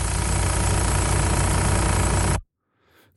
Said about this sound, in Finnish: Siis tommonen ääni ja sit tuolla heiluu tuolla moottorissa joku. Otetaan, mikä auto tää on? Mikä tuo heiluu?